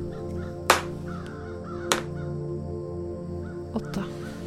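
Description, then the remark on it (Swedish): Crows flying around in the sky above an old cabin caw a few times at irregular intervals, harsh loud calls with the last two close together, all over a steady low droning background. “Men ovanför stugan så kan du se på himlen ett flertal olika fåglar flyga omkring där. Stora rovfåglar.”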